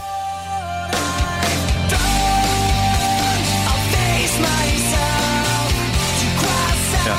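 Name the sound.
rock song being played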